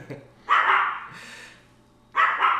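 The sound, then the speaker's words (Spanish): Dogs barking in two loud, sharp bursts separated by a short pause, over a steady low hum in the background. “Bueno, ahí están escuchando mis chuchas. Espero que no nos estén atacando.”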